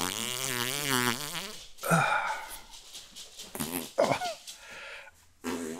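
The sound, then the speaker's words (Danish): A housefly buzzes loudly near the microphone, its droning pitch wavering as it circles for a couple of seconds, then scattered short bursts of noise follow with the buzz coming and going. “Kill it. Pelli, gå op til mor. Pelli. Fuck, jeg løber lige to sekunder, fluen.”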